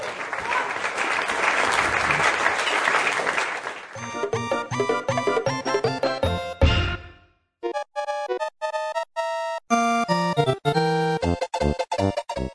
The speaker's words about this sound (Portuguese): Tem que colocar palmas agora depois desse comentário de vocês. Ale, coloca palmas aí pra gente.